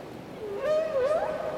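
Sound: whale singing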